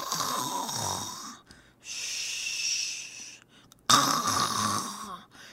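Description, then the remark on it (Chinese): A voice mimics the snoring of people, men or women, in three rough, rasping breaths. Each is a loud, sustained noisy rattle with brief quiet gaps between them, and the last one starts sharply. “我学诶吼，是因为我听太济会讲诶人诶声，不管查甫查某”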